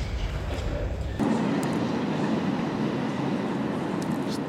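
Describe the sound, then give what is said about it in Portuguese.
A train rumbles past, a steady, loud roar of wheels and rail noise that swells suddenly after a second and keeps going, with faint rhythmic clatter. “Isto vai ser giro para cortar, porque está o comboio a passar.”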